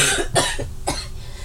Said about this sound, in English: Am I really gonna cough? I'm sorry. I was trying to hold it in.